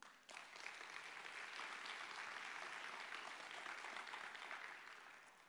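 crowd, audience applauding

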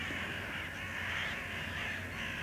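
bird, crows cawing

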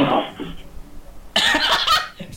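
human body sound, coughing

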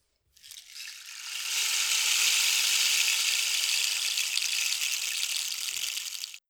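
nature, rain

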